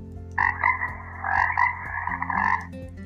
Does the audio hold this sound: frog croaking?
yes